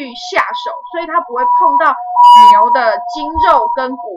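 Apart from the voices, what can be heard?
ambulance siren passing outside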